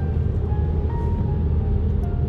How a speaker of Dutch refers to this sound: Zijn het gewoon scootertjes. Elektrische scootertjes. En dan hoor je eigenlijk alleen maar de banden. Want die banden die zijn heel zwaar en met heel veel profiel. Echt eh, heel erg onnodig voor een stad.